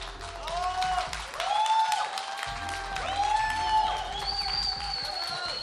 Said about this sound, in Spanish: Fuerte el aplauso.